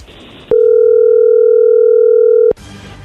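A phone ringing tone heard through the line while a call is placed: one loud, steady, mid-pitched beep lasting about two seconds, with quiet background noise before and after it.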